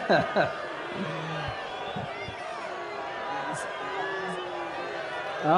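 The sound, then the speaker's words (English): A crowd boos Lindsey Graham on stage in his home county, Pickens County, South Carolina: a steady, dense roar of many voices, with jeers and shouts rising out of it, sustained at fairly even loudness throughout. “Again, this is Lindsey Graham in his Thank home county much. in South Carolina being booed on the stage.”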